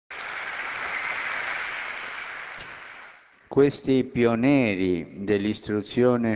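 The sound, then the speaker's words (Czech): A crowd applauds in tribute to Christian lay people, religious brothers and sisters and priests who gave their lives to educating children and youth, a dense, steady wash of clapping for about three seconds, tapering off before a voice resumes speaking. “Vzdejme jim hold hezkým potleskem.”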